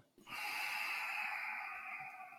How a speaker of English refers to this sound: Can you start breathing nice and slow? Deep breath in and a deep breath out.